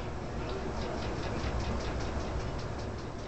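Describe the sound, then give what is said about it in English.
A Parkinson's disease tremor in the legs, rendered as sound, shakes out as a fast, steady patter of soft rustling pulses, several per second, over a constant hiss, fairly quiet, with no voices. “Right there, that's the sound of a tremor.”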